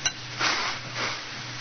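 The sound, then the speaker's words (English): A drinking glass standing by a bed, from which poison was drunk, gives one light clink as it's lifted, followed by two soft brushing handling sounds over a faint steady hum. No one speaks. “And he drank the poison from this glass here by the bed.”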